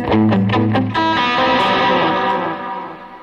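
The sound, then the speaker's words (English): An electric guitar played through effects pedals: a few quick distorted picked notes, then a sustained chord that rings out with a wash of echo and reverb before fading. “As you can see, I'm doing a, a pedal board cam nowadays, which is kind of neat.”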